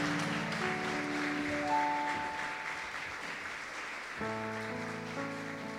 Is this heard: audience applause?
yes